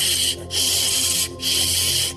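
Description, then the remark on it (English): A voice imitates a water hose spraying on full blast onto a burning motorcycle, with loud, breathy hissing "shh" sounds in three bursts separated by brief pauses, the middle and last bursts held longer. “I made a spraying sound with my mouth as water doused the motorcycle blaze.”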